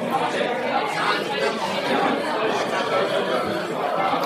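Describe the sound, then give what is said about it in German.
A steady, dense murmur of many overlapping voices from about 70 to 80 people fills a hall, with occasional soft laughter rising from the crowd; no single voice stands out. “Geschätzt würde ich sagen, hier sind 70 äh, bis 80 Personen im Saal.”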